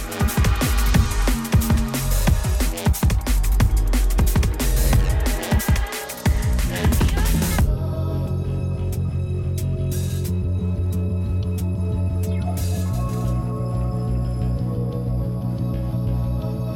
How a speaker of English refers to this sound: You're about to hear our number one tuner last year.